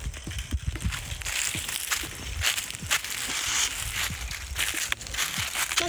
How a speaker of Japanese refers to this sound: ハサミがパチパチ言うけどいいよね